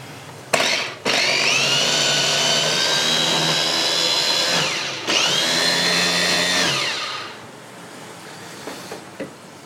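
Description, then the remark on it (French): An electric blender whirs loudly in two long bursts, blending mint leaves with two tablespoons of wholegrain mustard as finely as possible; its motor pitch slides as it spins up and winds down, with a short pause between runs and quiet clinks afterward. “vais mixer le tout le plus finement possible.”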